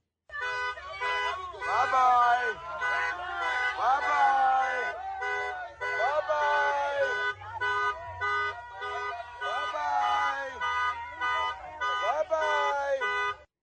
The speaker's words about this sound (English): Here are some people protesting at one of the events there in Staten Island.